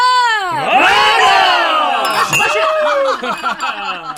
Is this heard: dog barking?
no